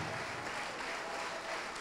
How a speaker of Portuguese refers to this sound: Dê o melhor para Deus, a melhor, a melhor salva de palmas. E abra a boca e diga: Glória ao teu nome, Senhor. Isso, aplaude e glorifica.